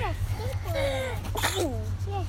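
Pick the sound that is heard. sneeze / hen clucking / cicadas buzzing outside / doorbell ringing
sneeze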